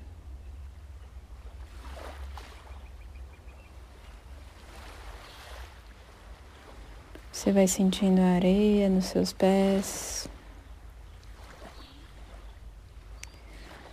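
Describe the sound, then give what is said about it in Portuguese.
A steady low wash of surf rolls on throughout, a soft continuous roar of waves breaking on a beach, with a calm voice speaking briefly over it partway through. “Você vai ouvindo as ondas quebrando.”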